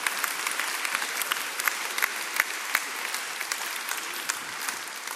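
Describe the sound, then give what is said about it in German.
A big round of applause from a church gathering in Bern for everyone who volunteers: many hands clapping in a dense, steady wash, with sharper individual claps popping out here and there, sustained at even loudness with no voices over it. “Na, und jetzt bitte ich uns alle für einen fetten Applaus.”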